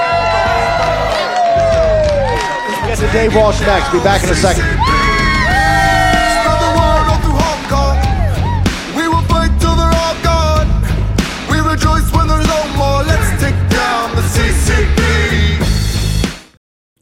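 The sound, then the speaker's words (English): A crowd on the War Room show cheers and whoops loudly for Dr. Peter McCullough for about sixteen seconds going into a short commercial break, with scattered yells rising over a steady roar, while a man briefly speaks over the noise before it cuts off abruptly. “Let's hear it for Dr.”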